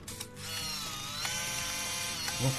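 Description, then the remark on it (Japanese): A film camera's shutter, released with no film loaded, clicks, then its film-advance motor whirs steadily for a couple of seconds, a fairly loud mechanical buzz ending with a brief clunk as the winding stops. “の巻き上げ音、はい、今、巻き上げ音ってものがないわけじゃないですか”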